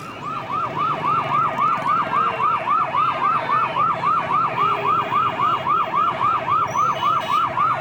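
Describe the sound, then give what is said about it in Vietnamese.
A loud ambulance siren wails in rapid, repeating rising-and-falling sweeps as the ambulance rushes along a street, steady, with faint traffic rumble underneath and no voices. “vâng đúng quý vị đang nghe thấy tiếng xe cấp cứu chạy vội vã trên phố”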